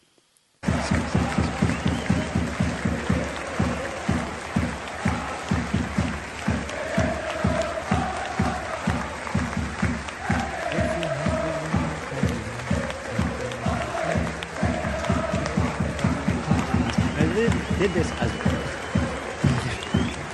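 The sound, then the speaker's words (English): A large football crowd at the beginning of a match claps a scheduled minute's applause for the royal family, in a steady, rapid rhythm for about twenty seconds, loud and continuous, with a roar of voices and some chanting mixed through the applause. “there was a, a, a minute's applause was scheduled at the beginning of the match uh, for the royal family, and the, so they just played there.”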